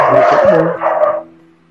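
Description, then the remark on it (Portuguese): Dogs bark in two loud bursts, a long jumble of overlapping barks followed by a shorter one, then the noise quickly dies away. “Ops, a cachorrada tá feita.”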